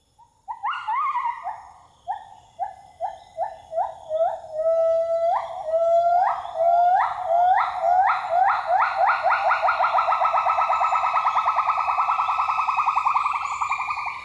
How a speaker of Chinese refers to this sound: 那您现在听到的是李老师录制的来自马来西亚婆罗洲热带雨林里的。长臂猿的叫声，我感觉有点像一声声的防盗器的警报声。